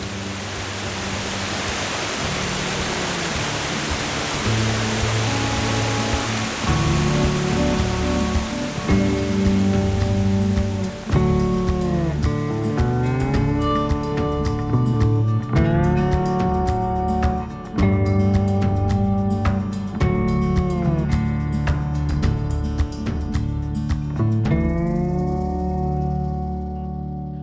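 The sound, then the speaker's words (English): A steady, full roar of rushing water from seven overlapping cascading waterfalls at Seven Falls in a canyon, soon joined by sustained musical tones that swell over it while the water noise continues underneath. No one speaks. “Seven Falls, there are seven waterfalls that are overlapping over the other. And when you have the monsoon rains, you can hear it before you can see it, which is really special, particularly in the canyon, which just kind of amplifies the sound.”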